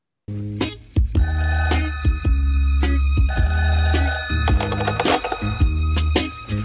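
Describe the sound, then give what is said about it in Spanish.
A telephone bell rings in repeated bursts over the opening of a song about a father speaking on a telephone, layered with steady bass and sustained instrumental tones, loud. “los voy a dejar con esta canción. que hable un papá a un teléfono.”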